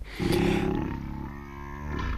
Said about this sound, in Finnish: minne katosi se pieni tiikeri, joka täällä Ristoterin kanssa murahteli monet kerrat